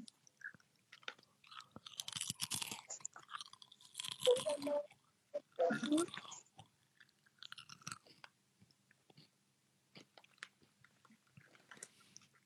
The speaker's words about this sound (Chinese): 我们家猫吃鸭脖不怕被辣到吗？